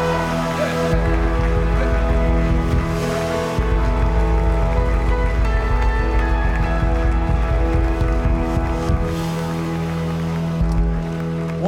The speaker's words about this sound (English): Now give Jesus a great big hand clap for that big harvest associate.